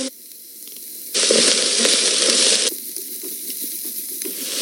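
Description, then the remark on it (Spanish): Steady sizzling as thyme, marjoram and bay leaves are added to hot olive oil with frying vegetables in a cooking pot on a stove, with a loud, bright burst of hiss for about a second and a half before settling back to a softer, crackling fry. “agregamos el tomillo, la mejorana y las hojas de laurel para que empiecen a soltar todo su olor.”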